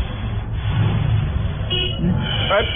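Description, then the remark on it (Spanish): A car horn honks briefly over low traffic rumble, with a second short blast near the end; background voices murmur faintly underneath. “bocinazo.”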